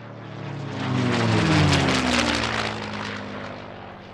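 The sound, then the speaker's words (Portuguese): A small propeller airplane roars past taking off from an aeroclub airfield with its lights off, without takeoff clearance or radio contact, its droning engine swelling loud before easing off slightly, with shifting engine tones throughout and no voices. “o cara da torre do aeroclube, que dessa vez não tava no esquema, ele só disse que ficou pasmo porque ele viu um avião com luzes apagadas, sem pedir permissão de decolagem, sem comunicação de rádio decolar, e ele não sabia o que estava acontecendo.”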